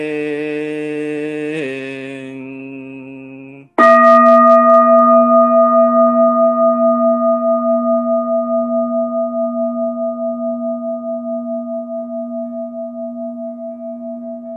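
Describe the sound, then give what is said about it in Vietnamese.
A mindfulness meditation bell is struck once, loudly, after a fading earlier tone, then rings out for over ten seconds with a slow, wavering shimmer as it gently decays. “nghe tiếng chuông lòng nhẹ buông tâm tĩnh lặng hết sầu thương”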